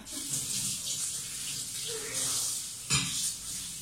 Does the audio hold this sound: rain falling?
no